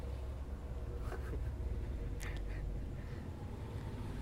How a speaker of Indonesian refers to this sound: Iya, yeah, ada motor.